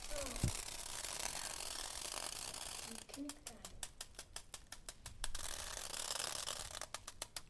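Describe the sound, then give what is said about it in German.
A plastic bag crinkles and rustles, a bright, crackly hiss with bursts of sharp snapping clicks that come and go over several seconds. It is one of several found objects made to sound by seawater dripping onto it from bottles. “hat sich eine Plastiktüte geschnappt.”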